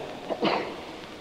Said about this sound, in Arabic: يرحمك الله